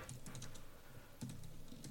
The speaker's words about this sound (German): Ja, ich weiß es selber nicht, ich habe etwas schreiben und bin da irgendwie noch auf eine Taste gekommen und dann habe ich irgendeine Tastenkombination gemacht.